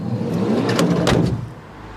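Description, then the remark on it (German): A minivan's engine idles steadily while its sliding door rumbles and clunks shut in two quick bursts, then the engine hum continues alone. The minivan is the Bürgerbus of Feldertal in the Vogelsbergkreis, Hesse, Germany, sponsored by the state of Hesse and driven by volunteers. “Ein Minivan, gesponsert vom Land Hessen, getragen vom örtlichen Gewerbeverein und gefahren von Ehrenamtlichen, erklärt Bürgermeister Bach.”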